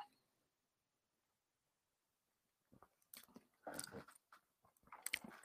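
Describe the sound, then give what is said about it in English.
After nearly three seconds of silence, wet mouth noises follow: someone sipping Frosty's Cherry Limeade soda, bottled in Michigan, from a bottle, with short slurps, a swallow and lip smacks in quick bursts. “Let's take a sip, see what we think.”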